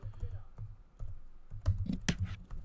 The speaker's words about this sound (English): Type, I was typing Ravens.